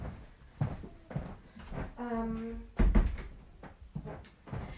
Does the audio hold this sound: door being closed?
yes